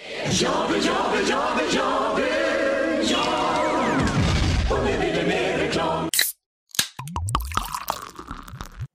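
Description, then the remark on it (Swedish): A drink bubbles and fizzes up in a glass, a dense crackle of popping bubbles for several seconds, then a brief hush followed by scattered pops and light clinks, with no talking. “Jag blir alltid ganska sugen på något i glaset när man hör den där bubbla upp, eller vad säger du”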